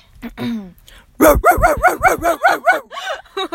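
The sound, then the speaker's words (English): A dog whines and yips briefly, then lets out a quick, rhythmic burst of about eight loud barks, ending with a couple of softer yaps. “Wait, can you do a little bark for me?”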